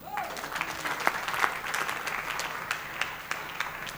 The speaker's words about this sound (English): All those who are clapping, may heaven remember you.